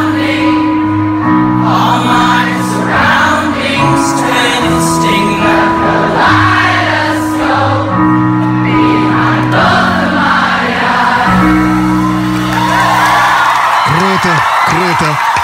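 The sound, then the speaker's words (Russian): A concert crowd sings along loudly to a live band, many voices holding long, steady notes of a melody throughout, with a wavering, warbling vocal flourish near the end. “Как толпа все-таки круто поет.”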